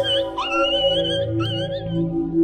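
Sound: dog howling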